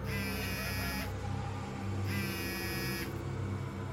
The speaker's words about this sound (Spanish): Una vez más, ese sonido de vibración en mi celular.